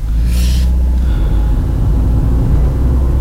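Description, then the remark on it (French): A car drives along while the driver looks for a place to park, with a loud, steady low engine rumble throughout and a short airy hiss near the start. “Donc là, je cherche à me garer.”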